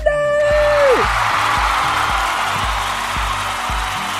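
A loud, high whoop that slides downward opens into sustained cheering welcoming a new music producer at a jam session, a broad roar that holds steady for several seconds over a regular, thumping low beat.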